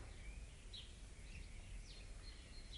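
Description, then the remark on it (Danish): Birds from the Vestre Kirkegård cemetery chirping and singing in scattered short calls, heard from inside a prison cell in Vestre Fængsel, Copenhagen, on the night of 2 May 1991 and recorded on a cassette tape recorder, over a steady low rumble of background noise, with no one speaking. “Fuglene fra Vestre Kirkegård.”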